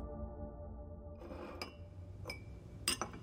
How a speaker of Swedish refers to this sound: Det var nästan tomt i baren och alla mina vänner hade gått hem. Bartendern torkade de sista glasen, hängde upp dem ovanför disken.